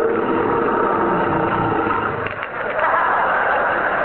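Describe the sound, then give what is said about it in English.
The MGM lion roars loudly at Metro Goldwyn Mayer Studios in Culver City, a continuous rumbling growl lasting about four seconds with a brief dip partway through, heard on its own with no talking. “What was that? The MGM Lion.”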